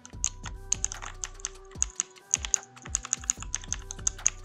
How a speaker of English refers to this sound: On its top left side, we have three keys in the dial. The keys sound similar to a mechanical keyboard, you can hear the sound yourself.